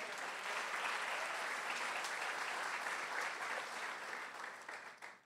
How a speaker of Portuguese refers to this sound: Será que você pode aplaudir Jesus por isso?